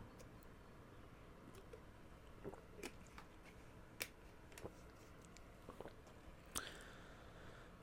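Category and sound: food or drink, sipping a drink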